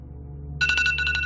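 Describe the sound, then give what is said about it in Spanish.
A bell starts ringing abruptly, a bright high tone with rapid repeated pulses that continues steadily, over a low background hum with no one speaking. “Muy bien, ahí sonó el timbre.”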